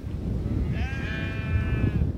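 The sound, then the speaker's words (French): A salt-meadow sheep with a black head and black legs, on a windswept farm at Montmartin-sur-Mer in Normandy, France, lets out one long, wavering bleat over a steady low rumble of wind or outdoor noise. No one speaks. “Lui élève des moutons de presse salés à la tête et aux pattes noires.”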